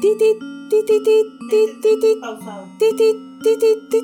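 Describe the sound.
A voice imitates Morse code tapping with quick, clipped syllables in short irregular bursts of two or three, fairly loud, with brief pauses between groups.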